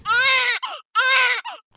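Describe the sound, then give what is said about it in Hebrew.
A newborn baby cries in two loud, strained wails, each breaking off into a short sobbing catch before the next breath, with no other voices or background noise. “כל התינוקות בוכים, אבל תינוקות קטנים ממש, בני כמה ימים, בוכים בלי דמעות.”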